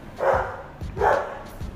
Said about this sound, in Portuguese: Gente, pra quem não conhece, esse é o Kai, que está latindo.